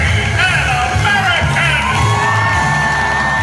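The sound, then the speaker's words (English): A large stadium crowd roars with screams, whoops and shouts, a dense wall of cheering with clapping and stamping thumping underneath, loud and sustained throughout. “The crowd erupts, screaming, clapping, and stamping.”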